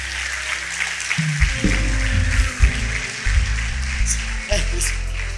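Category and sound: crowd, audience applauding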